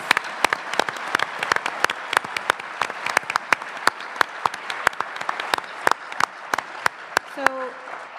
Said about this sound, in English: All right, let's uh, give a round of applause to our candidates after the first round of questions.